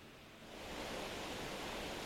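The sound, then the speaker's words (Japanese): A loud, steady roar of steam containing hydrogen sulfide gushing from a geothermal power survey drilling site of Mitsui Oil Exploration in Rankoshi, Hokkaido, Japan, swelling over the first moment and then holding as a continuous hiss. No one speaks. “地熱発電の掘削中に水蒸気噴出”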